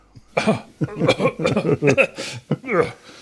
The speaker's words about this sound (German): Ja, und, äh, das sorgt für Erstickungsanfälle. Über so viel das Eigenlob war, muss ich husten.